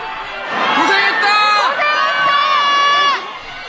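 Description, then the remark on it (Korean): A big welcoming crowd of fans cheers loudly for the South Korean national football team players returning from the Qatar World Cup, many high, shrill voices overlapping into a sustained roar of screams and shouts for about three seconds before it quickly drops away. “소원을 펼친 선수들에게 아낌없는 격려와 환호를 보냈습니다.”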